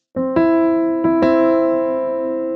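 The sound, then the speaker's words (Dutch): A piano plays a C major chord, struck in a few quick staggered attacks that then ring on, sustained and clear, with no talking. “Dus misschien hoor je het verschil al als ik nu eerst majeur speel.”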